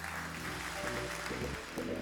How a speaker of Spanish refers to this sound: Den un fuerte aplauso a Dios, casa de Jesús.